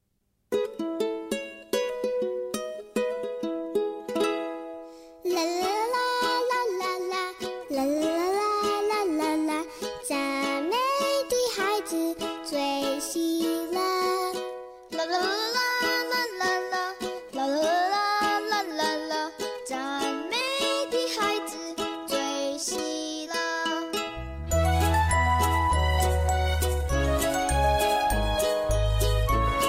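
Bright, tinkly instrumental music for a children's praise song, with a bouncy bell-like melody and no singing; a fuller, heavier bass layer comes in near the end.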